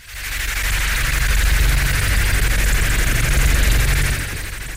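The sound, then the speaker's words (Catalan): Dense, harsh electronic noise music performed live by a composer roars continuously at high volume, a wall of hiss and rapid crackling pulses over a low rumble, sustained for several seconds before easing slightly at the end. “el plaer de la mъsica que fa soroll”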